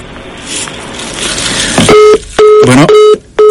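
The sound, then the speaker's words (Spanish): A phone call drops after a burst of noisy chatter, followed by a repeating electronic tone, steady loud beeps in on-off pulses, sounding like a disconnected call signal. “Bueno, se nos cortó la llamada ahí, este, no sé qué habrá pasado.”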